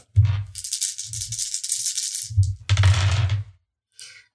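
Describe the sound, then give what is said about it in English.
Dice rattle and clatter across a hard surface for about three seconds, a busy run of bright clicks with low knocks, then a short final tap after a brief pause; the dice are rolled for an intimidation check in a game. “Okay, go ahead and roll.”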